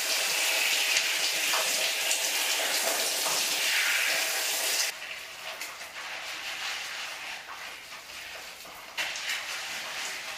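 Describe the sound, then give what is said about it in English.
Shower water runs in a steady, dense hiss while hair is being washed, loud for the first half, then drops to a softer, muffled spray that continues to the end. No one speaks. “I brush my hair before taking a shower.”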